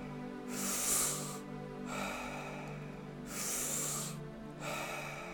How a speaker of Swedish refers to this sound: Rond nummer 1. Andas in, andas ut. Andas in, andas ut.